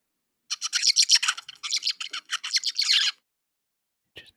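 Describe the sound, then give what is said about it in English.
A juvenile songbird in its plastic song stage sings a rambling, jumbled run of scratchy chirps and warbles for about two and a half seconds, fairly loud, then a brief faint note after a pause. “you know, th- there's a teenager phase too. It's called plastic song and mm.”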